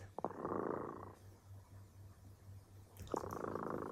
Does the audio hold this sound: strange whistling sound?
no